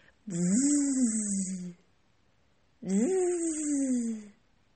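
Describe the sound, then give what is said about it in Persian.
Two loud buzzing bursts from a bee, each lasting about a second and a half, with a short silent gap between them and a slight rise and fall in pitch. “بذارین یه شعر براتون بخونم شاید فهمیدین که قصه امشبمون به چیه ای زنبور طلایی نیش میزنی بلایی”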